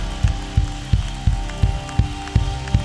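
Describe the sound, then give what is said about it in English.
The Bethesda audience applauds God in praise in a dense, continuous patter, with strong, evenly spaced beats roughly three times a second, clapping together in rhythm over a steady background. “Let's give God a big hand clap of praise.”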